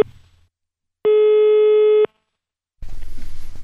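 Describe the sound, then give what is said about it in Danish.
A single steady ringing tone of an outgoing telephone call, placed from the Radio Victoria studio, sounds for about a second, followed by silence and then a burst of noisy line sound as the call seems to connect. “Skal vi prøve at give ham et kald, og så lige høre, hvad der skal ske i aften?”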